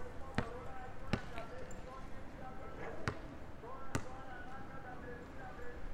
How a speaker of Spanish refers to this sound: Y entre otras estoy sentado aquí en un parque en Bogotá, en el que hay un señor practicando básquetbol, baloncesto.